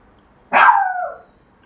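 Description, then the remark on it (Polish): A single loud bark from a dog named Juki, sharp at the start and trailing into a drawn-out, slightly whining tail before quiet returns. No one speaks. “Przepraszamy. Piesek się.”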